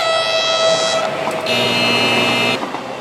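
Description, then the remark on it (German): Two loud, sustained train horn blasts at railway tracks, the first about a second long and the second slightly longer after a short gap, over a steady low rumble. “Menschen, die noch über die Gleise laufen, um einen Zug noch zu kriegen. Szenen wie diese hier.”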